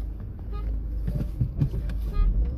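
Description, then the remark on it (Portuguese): A car horn sounds briefly amid steady engine rumble and road traffic noise, with a few short clunks and knocks; another driver in traffic is honking at the speaker for being slightly slow to move. “e alguém tá buzinando pra mim.”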